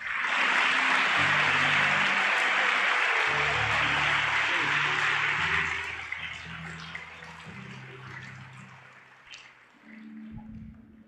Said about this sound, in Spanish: Dele el mejor aplauso que tenga el Rey de Gloria.